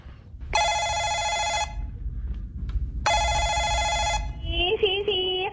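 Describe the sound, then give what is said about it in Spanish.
A telephone rings twice, each ring a bright, buzzing electronic burst lasting about a second, separated by a pause, followed by a warbling tone as the call connects, a call being placed to the porter's lodge of a building. “Llamemos.”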